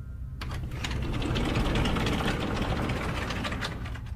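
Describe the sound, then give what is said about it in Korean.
An attic sliding door at the foot of a bed rolls slowly open, a steady rattling, grinding scrape along its track that starts abruptly and continues for about four seconds, fairly loud, with no voices. “침대 발치 쪽에 위치한 다락방의 미닫이문이 스르르 열리는 소리가 들려오고 있었다.”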